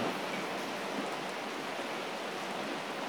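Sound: steady rain falling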